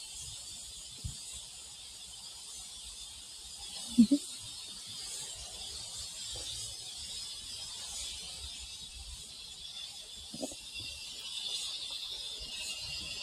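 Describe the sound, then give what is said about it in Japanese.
Cicadas drone steadily outdoors in Australia in summer, around 8:20 in the morning, a continuous high, shimmering buzz that fills the background throughout, with a couple of faint low knocks and no speech. “今、オーストラリアはセミもふーんっ鳴いています。”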